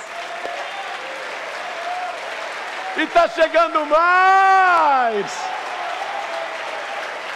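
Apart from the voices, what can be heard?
audience applauding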